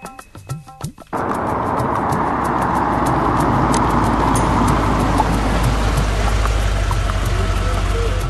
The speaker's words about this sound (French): Et voici donc, voici donc, Domingo Falco et sa jeune femme, qui reprennent leur voiture et se dirigent vers la plage d'Aquapinto, afin d'aller y chercher un verre d'eau pour le marabout, le marabout Ougan, qui veut chasser la sirène par une magie.